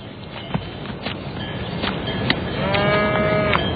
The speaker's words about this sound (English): Rosie, do you want to go see the cows with Mommy?